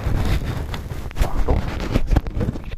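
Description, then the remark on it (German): Muffled rubbing and scraping as a foam windscreen is tugged off a handheld recorder, with low rumbling handling noise and a few soft bumps throughout, no voices. “Ich nehme das Gerät raus, greife den Windschutz ab”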